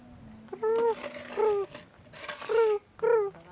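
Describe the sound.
A person imitates her own cat's clucking chirp, the sound her cat makes when it jumps on the bed: four short, bright trilling chirps in quick succession, fairly loud, with no talking.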